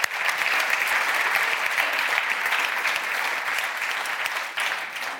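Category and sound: crowd, audience applause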